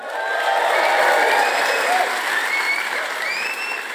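A live audience applauds steadily, dense clapping with some cheering and whoops rising above it, sustained and fairly loud throughout.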